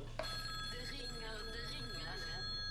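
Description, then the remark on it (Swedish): A telephone rings in a studio as a caller phones in, a steady, high electronic tone that holds for the whole moment, fairly loud, while muffled voices murmur faintly underneath. “Mitt i, i långfilmen så ringer det in.”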